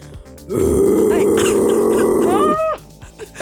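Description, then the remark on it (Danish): A voice imitates a bear's growl: one sustained, rough, low rumble lasting about two seconds, loud and steady, ending with a brief rising-then-falling vocal squeak before it cuts off. “Nej, det lyder bjørn. ikke som en bøvs. Det lyder rigtig uhyggeligt og meget også altså, svært på en eller anden måde.”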